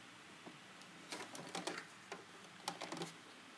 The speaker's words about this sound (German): Hier unter wäre jetzt gerade der Knips. Hier, wo ich mit der Schere drauf zeige. Das heißt, ich nähe jetzt noch ein und noch einmal runter und dann geht die Nadel raus.